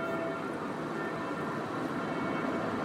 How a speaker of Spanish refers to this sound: Y las campanas que se oyen de fondo son las de la iglesia del Santo Suplicio, San Suplicio a mí esa sirena me, me genera una angustia.